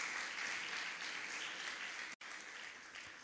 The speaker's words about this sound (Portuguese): Você pode aplaudir o Senhor?